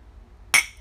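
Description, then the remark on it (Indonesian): A single bright clink of drinking glasses touching in a toast, sharp, with a short ringing tail that fades quickly over a quiet background. “minum dulu minum dulu cheers cheers cheers cheers cheers mana gelas lu”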